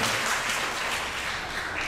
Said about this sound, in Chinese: 掌声，感谢这些年轻人来上来，今天你所有的同工们，他们能够努力的在当中才有现在的呈现。